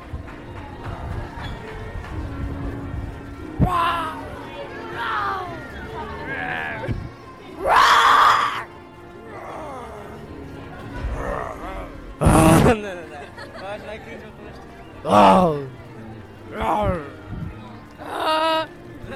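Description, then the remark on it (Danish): Several people in a park take turns imitating a lion's roar, giving a series of loud, growly vocal bursts of varying length, with murmuring voices and outdoor background noise between them. “Og jeg har gået rundt i parken og bedt folk om at give mig deres bedste løveimitation.”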